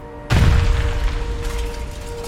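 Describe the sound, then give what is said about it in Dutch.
A sudden, heavy explosion on a busy street, the Kossingel in Rotterdam, near the police headquarters, on a Monday afternoon, 23 May 1938, bursts in with a deep low-frequency boom, then a long rumbling roar that lingers and slowly decays, with no voices present. “een explosie.”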